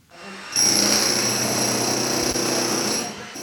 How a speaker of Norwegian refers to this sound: En mann i arbeidstøy med gul hjelm og gul vest borer et stort hull i en betongvegg. Fra veggen trekker han ut en sylinder, for kvaliteten på betongen her skal undersøkes på et laboratorium.